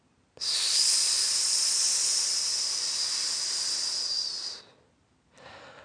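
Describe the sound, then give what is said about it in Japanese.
A slow, steady deep-breathing exhale hissed out through the gap between the upper and lower front teeth, lasting about four seconds before tapering off, followed by the start of a second, quieter breath. “吐くんです、まずね。”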